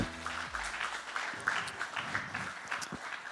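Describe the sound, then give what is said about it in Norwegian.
A crowd applauds steadily to welcome a guest up, a dense wash of rapid hand claps at moderate loudness, with a brief low tonal hum at the very start before the clapping carries on alone. “En stor applaus, en varm applaus.”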